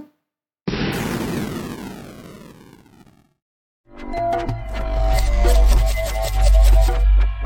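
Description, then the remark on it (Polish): A sudden, loud explosion bursts out and its rumbling tail fades over about two seconds. After a brief silence, a dense, bass-heavy wash of sound follows. No one speaks. “trwa reset, uruchamianie programu tydzień zleciał, bum”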